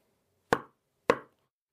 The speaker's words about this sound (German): Irgendetwas klopft an ihre Wand. Ist es ihre Mutter? Hatte die Seance doch funktioniert?